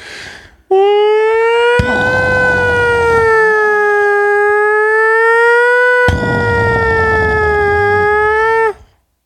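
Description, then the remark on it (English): A loud air raid siren sound effect, played as a bomb shelter alert for a Woj bomb, wails in a long, steady tone with a slow, slightly wavering pitch, sustained for several seconds before cutting off abruptly. “You got a better one. My bomb? Yeah, better bomb noise. Oh, I thought yours was. I'll do the bomb shelter.”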